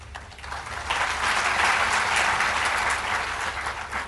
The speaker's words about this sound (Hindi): तालियां तो बजाते हो बात अच्छी लगी इसका तो धन्यवाद